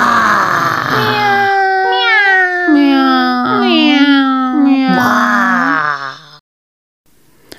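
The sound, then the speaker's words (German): Several cats yowl and wail loudly, their drawn-out cries overlapping and sliding up and down in pitch for about six seconds before falling silent. “kümmerte sich nicht um das Mauzen der Katzen”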